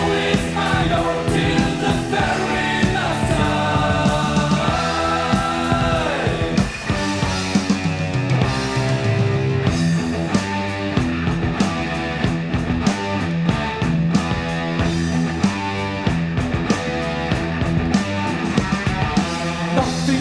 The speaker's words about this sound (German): Ein dichtes Intro mit einem tonnenschweren Riff, und einem wirklich epischen Feeling mit kreischenden Gitarrensolos und hymnischen Refrains.